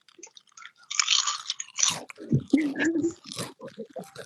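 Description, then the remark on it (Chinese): Loud, crisp crunching of potato chips being chewed, with irregular bursts of brittle crackling and munching over a few seconds, plus a brief low murmur partway through. “你们在 你 battle 吃 能不能不要 薯片吗 发？出这种声音？”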